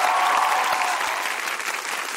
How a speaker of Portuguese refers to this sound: Gente, uma salva de palmas para a Regina Duarte. Muito obrigado.